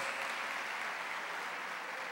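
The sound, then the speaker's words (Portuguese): An audience at a church service claps steadily to applaud the Lord, a dense, even wash of many hands applauding at the same loudness throughout, with no voices standing out. “Quem crê, aplauda o Senhor, diga aleluia, diga glória a Deus.”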